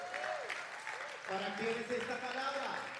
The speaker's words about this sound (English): Come on, clap your hands to Jesus.